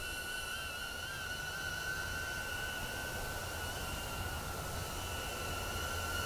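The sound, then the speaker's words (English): A Hover Air X1 camera drone's high-pitched propeller whine holds steady throughout, with a faint wavering in pitch as it orbits automatically around a person about five feet away, over a constant airy rush and no voices. “Hover Air X1 Drone Review”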